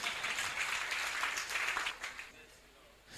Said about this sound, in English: Now, the reason why I'm bringing this into the picture look, if you are clapping, clap well because.